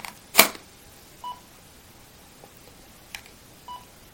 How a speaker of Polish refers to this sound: Ten sygnał oznacza, że widoczne jest światło. Ten tester jest jednocześnie czujnikiem światła, z tym, że ten czujnik jest średnio przydatny, ponieważ pokazuje, że jest światło albo brak światła.